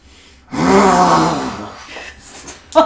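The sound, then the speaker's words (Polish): A single loud vocal roar, a voice imitating a dragon's roar of disappointment, swells into a drawn-out groan, then trails off into breathy fading noise with a brief sharp sound at the end. “Usłyszałaś w głowie e, ryk zawodu, bo faktycznie wszyscy czujecie, że e, moc świtezia na jakiś czas odcięła e, smoka od możliwości skrzywdzenia”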